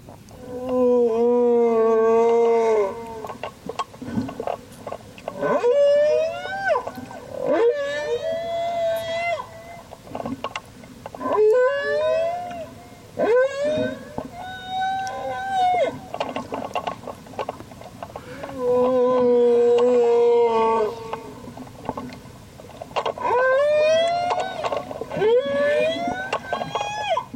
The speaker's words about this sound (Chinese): 这个时候就办了一个擂台赛， 是 方圆百里，可能方圆千里的这些公鲸，通通都跑过来。是我们来听一下鲸鱼的歌声到底是怎么样。